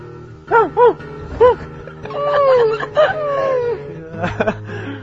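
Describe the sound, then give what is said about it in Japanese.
A person imitates a whimpering dog with a few short, high whines followed by longer, drawn-out falling whimpers, fairly loud, with a brief breathy laugh-like sound near the end. “うまいですね、犬ものはね。まあね、昔犬としてたからね。”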